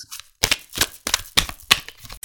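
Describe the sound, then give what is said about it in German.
Crisp papery bursts come in a quick uneven series of about five as a deck of tarot cards is shuffled and handled to draw a daily card, with no one talking. “Live im Podcast ziehe ich jetzt eine Tageskarte, meine heutige Tageskarte.”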